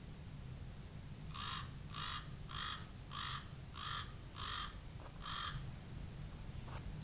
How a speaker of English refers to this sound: Common Raven